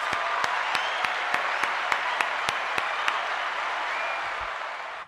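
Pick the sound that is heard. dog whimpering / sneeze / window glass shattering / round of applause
round of applause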